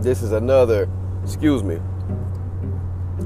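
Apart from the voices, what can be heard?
car driving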